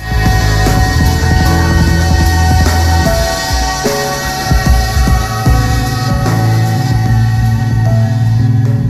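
A recorded song plays loudly and continuously, with deep sustained bass, layered tonal lines and a dense, shimmering upper texture, and no talking over it.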